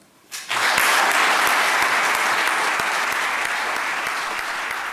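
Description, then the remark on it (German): An audience breaks into loud, sustained applause to thank everyone at the close of an evening event, after a brief quiet start, the dense clapping holding steady for several seconds with no voices over it. “Und ich möchte ja, einfach noch einmal einladen, mit einem großen Applaus euch allen ein Danke zu sagen.”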